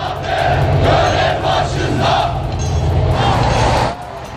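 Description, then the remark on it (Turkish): A protest crowd near the port of İskenderun, Turkey, chants loudly in unison as ships unload Patriot missile equipment, many voices shouting rhythmic slogans over a steady low rumble, the chant rising and falling in bursts before dropping off near the end. “Gemiler ekipmanı boşaltırken İskenderun'dan tepki sesleri de yükseldi.”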